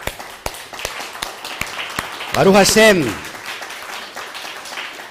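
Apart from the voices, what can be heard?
audience applause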